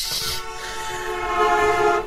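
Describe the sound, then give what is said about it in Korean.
A car horn blares in one long, steady, brassy honk lasting about two seconds, loud and sustained after a brief hissy start, with no voices present, as an oncoming car on a road swerves to avoid someone. “달려오던 자동차가 클렉슨을 울리며 라이언을 피해갔다.”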